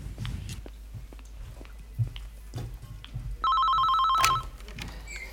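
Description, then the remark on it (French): A telephone rings once in a loud burst lasting about a second, preceded by scattered soft clicks and rustling. “C'est gentil d'appeler.”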